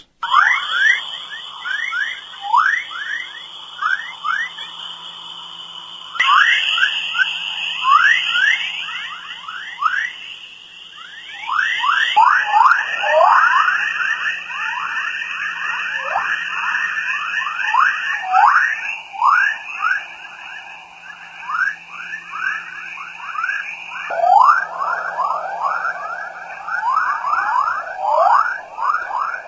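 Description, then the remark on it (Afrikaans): Dense, continuous swarm of rising electronic chirps and whistles over a steady high tone, like a chorus of birds rendered as radio static, shifting in bursts every few seconds with no voices; whistles and chirps of the Van Allen belt recorded by the twin satellites of the RBSP mission. “die klanke wat opgeneem is deur die tweeling satelliete van die RBSP sending.”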